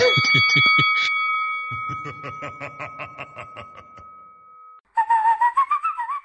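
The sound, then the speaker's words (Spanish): Someone whistles a long, shrill, steady note over a pulsing rhythmic backing, then shifts to a wavering, sliding whistle, imitating the high squeal of squeaky car brakes in a spoof advert for the Talleres Baracaldo garage's brake replacement. “Talleres Baracaldo, te cambiamos los frenos si suenan al dandy silbando.”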